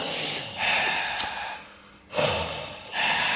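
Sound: deliberate heavy breathing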